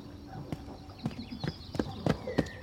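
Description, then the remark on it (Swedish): Slow, deliberate footsteps crunch over rough ground, about one every half second, growing slightly louder as they creep closer, with faint birdsong and outdoor ambience behind them. “Så hör jag de där stegen igen. Smygande. Men nu är de närmre.”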